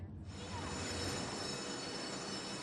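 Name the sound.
train running on rails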